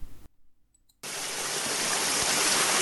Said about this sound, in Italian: Rimbombo di acqua dalla scoscesa altura. Il velino fende il baratro consunto dai flutti. Caduta di acqua. Veloce, come la luce, la lampeggiante massa spumeggia, scuotendo l'abisso. Inferno di acqua.